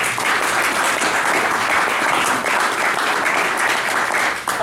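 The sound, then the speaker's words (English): A crowd breaks into sustained applause for the gentlemen being introduced: a dense, steady wash of many hands clapping at once, holding at an even loudness throughout with no voices rising above it. “So give these gentlemen a round of applause.”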